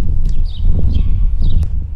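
A house sparrow near a medical clinic gives a few short, scattered chirps, fairly faint, over a steady, heavy low rumble of outdoor background noise.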